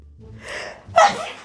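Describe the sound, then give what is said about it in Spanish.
A single sneeze, fairly loud: a breathy intake building up, then a sharp explosive burst that trails off quickly. No talking. “Jesús.”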